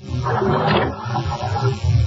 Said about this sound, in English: Those are waves caressing the shores of Mallorca, the most romantic island in the Mediterranean.